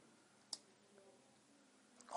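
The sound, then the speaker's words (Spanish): A vape mod's button clicks once, crisp, as the mod is switched off, then a quiet pause before another faint tap and a rising noise at the very end. “quiero apagar el mod y encenderlo, pues se apaga y se enciende muy rápido”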